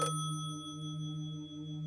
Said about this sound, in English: Uh, the phone on the TARDIS console starts to ring. It's for you, Doctor.